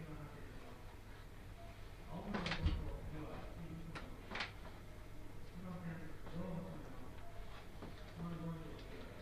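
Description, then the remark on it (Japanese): Train doors slide shut with two sharp thuds about two seconds apart as a Japanese train is about to depart, over a steady background hum while an announcer's voice speaks in Japanese throughout, warning passengers of the closing doors. “お待たせいたしましたまもなく発車いたします閉まるドアにご注意ください”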